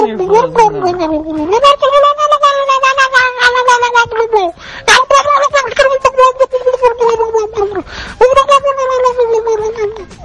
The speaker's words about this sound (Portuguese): Esse peru tá rebobinando? Ô tio, esse, esse peru tá parecendo o um gato da vizinha quando pega um pedaço de carne.